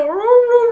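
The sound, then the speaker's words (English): A voice imitates a howling dog in one sustained, rising and wavering tone, fairly loud, lasting under a second with no other sounds. “Yeah, that that sounds like a dog.”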